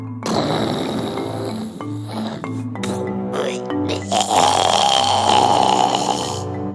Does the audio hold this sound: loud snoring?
yes